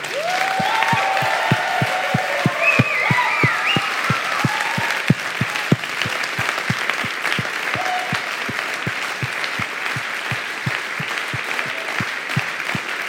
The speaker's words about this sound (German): Lass uns diesen fetten Applaus geben, einverstanden?